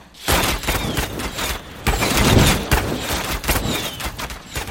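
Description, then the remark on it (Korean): Heavy cannon fire from Joseon navy warships booms repeatedly in a dense, continuous barrage against Japanese ships, loud low blasts overlapping with sharp cracks and a rumbling battle din throughout. “각 함선의 포스들은 총통을 발사하라.”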